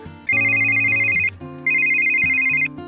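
A phone ringtone plays loud, a bright electronic melody sounding in two repeated phrases with a brief pause between them, as a call comes in with news of a job interview result, and no voices.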